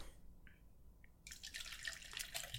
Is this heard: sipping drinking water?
yes